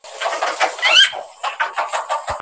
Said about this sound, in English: those chickens.